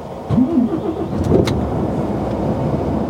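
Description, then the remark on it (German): A 480-horsepower diesel truck engine, started with a push of a button, cranks and catches with a brief rising whine, then settles into a steady, loud low rumble at idle. “mit einem Knopfdruck startet der Diesel.”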